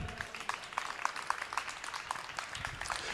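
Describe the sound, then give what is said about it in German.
Steady applause from an audience at moderate intensity, a seven-point applause on a rating scale, many hands clapping in a dense, continuous patter that neither swells nor fades, with no voices standing out. “Ein Sieben-Punkte-Applaus, der klingt schon nach Motivation, das ist schon etwas mehr.”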